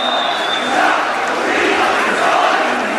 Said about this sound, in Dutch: People are all chanting down, down with the regime. There is nothing more clearer that the message is coming out of these people.